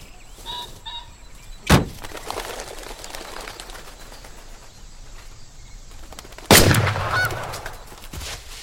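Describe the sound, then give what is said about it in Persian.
Two sharp gunshots ring out several seconds apart, the second louder with a longer echoing tail, while geese honk and squawk in the background. No one speaks. “معلومه اگه در رفته بود که گولم بعد تو کله پوک تو شلیک میکردم”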